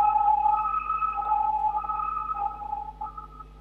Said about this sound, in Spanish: Ahí pasó la ambulancia.